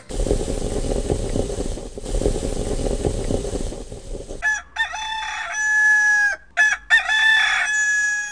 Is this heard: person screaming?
no